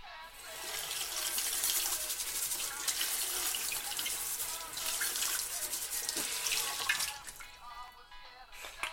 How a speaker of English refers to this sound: you're supposed to use soap and water on a can, but you can just run a banana under the tap?